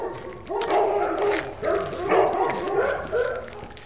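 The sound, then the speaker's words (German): Several dogs bark and yip over one another in a steady, overlapping chorus, with a few whimpering notes, moderately loud and echoing, inside an animal shelter. “Ein bisschen riecht man hier schon, dass Tiere zu Hause sind und ab und an hört man sie auch.”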